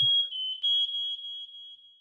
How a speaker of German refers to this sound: Ach, der Rauchmelder. Ey, der Rauchmelder, hätte er wieder vergessen, Alter. oh, shit.